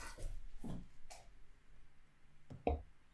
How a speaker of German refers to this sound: Mir ist gerade mein Stift runtergefallen, aber ich finde ihn nicht. Der hat sich irgendwie in Luft aufgelöst.